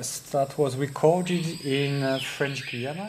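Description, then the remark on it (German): A loud, ringing whistled call from a group of male screaming pihas rises and falls in tropical rainforest in French Guiana, South America, partly masked by a man speaking over it. “Im Vordergrund, das ist eine Gruppe männlicher Schreipias, eine ganz charakteristische Vogelart.”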